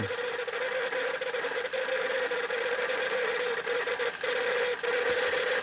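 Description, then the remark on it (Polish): A cassette tape deck motor whirs steadily while rewinding an iron Type I cassette, a continuous mechanical drone with a slight growl and a sustained mid-pitched hum that holds an even level throughout, with no one talking. “Trochę przy przewijaniu, trochę warczy, ale już nie warczy.”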